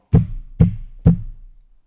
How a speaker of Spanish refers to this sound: No sé cómo se dice. Alguien que toca la puerta. Sí, golpe, yo qué sé.